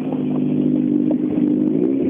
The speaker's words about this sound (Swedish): Så då, nästa bil Den här fina Golf 3 som Roine Björk har.